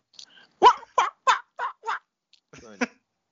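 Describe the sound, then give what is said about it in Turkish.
A person vocally imitates an animal call with a run of short, loud, squawking bursts in a quick rhythm, closer to a seagull's cry than a seal's bark, followed by a brief rasping trill. “Oğlum bu Martı oldu. Fok değil ki.”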